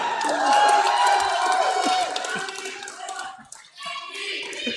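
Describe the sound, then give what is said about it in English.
A crowd of Manitoba New Democrats cheers and claps steadily for Wab Kinew, with overlapping shouts and whoops forming a dense, bright wash of noise that dips briefly near the end before swelling again. “Seems like a small crowd, unless they're just letting them talk.”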